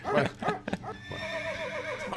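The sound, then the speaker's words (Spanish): A horse neighs loudly, opening with a few snorting bursts before a long, quavering whinny that wavers up and down and trails off. “Dudo que alguien tenga un caballo en su ahí, casa.”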